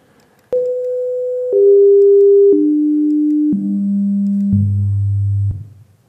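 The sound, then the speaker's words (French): Five steady synthesized tones step downward in pitch, one after another, each lasting about a second with a sharp start, playing a simple scale built from a fundamental tone and its multiples, as on a vibrating string, loudly and cleanly with no voices. “Elle va vibrer, elle va avoir un son fondamental, et puis elle va avoir les multiples de ce son comme vibration.”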